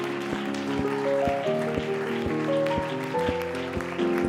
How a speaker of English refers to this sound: Now, why don't you clap your hands to that name that is above every name?